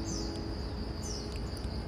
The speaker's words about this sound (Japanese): その大合唱の下で当たり前のように聞いていましたが亡くなり始めるとその亡くなり方の少なさにちょっとびっくりしたものです今鳥さんがこれだけ泣いていたんだというのが分かります